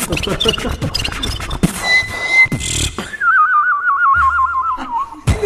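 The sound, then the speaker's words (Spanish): Fast vocal beatbox percussion gives way to a warbling, trilling whistle that imitates a goldfinch's song, with a low hummed tone under its second half and a final sharp hit. “Haces como un jilguerillo, como un pajarito.”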